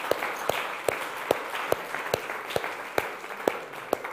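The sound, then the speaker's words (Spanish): An audience at a Spanish-language sermon applauds steadily, with a dense wash of clapping broken by sharper claps landing in a regular beat about twice per second, as if many hands keep time together. “Dele un aplauso, por favor, porque es digno de aplaudirle.”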